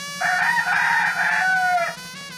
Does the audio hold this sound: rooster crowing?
yes